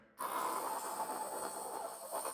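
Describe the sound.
A voice imitates the gritty sound of cutting obsidian with a saw, a steady, raspy hiss that starts abruptly and holds for about two seconds, moderately loud.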